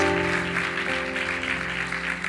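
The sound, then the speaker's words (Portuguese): A large crowd at a worship service claps steadily and densely for a few seconds, applause for Jesus and for first-time visitors, at a constant level while sustained keyboard chords hum softly underneath. “Vou dar uma salva de palmas a Jesus, aos nossos visitantes.”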